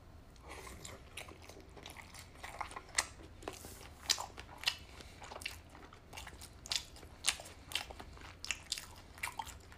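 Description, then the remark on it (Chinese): Someone bites into and chews pan-fried dumplings, a steady run of crisp, crackly crunches with sharp irregular peaks over a soft, wet chewing texture, with no one speaking. “再来一口煎饺。”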